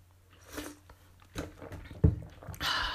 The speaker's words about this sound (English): Just a moment, I need to take a sip.